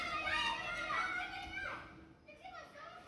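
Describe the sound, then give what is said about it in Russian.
High-pitched children's voices squeal and shout in the background at the neighbours', a lively overlapping chatter of kids at play, steady throughout. “Слышите, вот там вот на фоне детские голоса верещат, да?”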